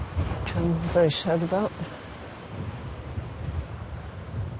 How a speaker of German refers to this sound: Jetzt, wo die Herbststürme die Wellen aufpeitschen und das Meer immer wilder wütet, wird die Zeit knapp.